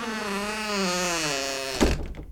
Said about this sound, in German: Na gut, ich mach die Tür wieder zu.